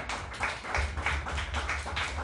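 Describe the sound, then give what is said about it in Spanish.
An audience applauds the speaker at an event, with steady, dense clapping at a moderate level, a continuous patter of many hands with no voices over it. “Ahí andamos y les pido un fuerte aplauso para nuestro ponente, por favor.”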